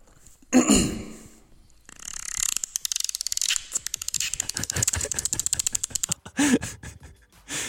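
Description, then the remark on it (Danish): A person imitates a dolphin with their voice in a recorded voice message: a short squeaky burst, then a long, rapid train of dry clicks that speeds up, ending with another squeal. “han kunne ikke sige som en due, men han kunne sige som en anden, et, andet, et andet dyr. Her kommer min delfinlyd, take one.”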